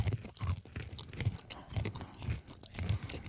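Steady crunchy chewing of candied roasted almonds and nuts from a Christmas market in Germany, with repeated dry crackles and a rhythmic jaw beat roughly every half second, fairly loud and with no talking over it.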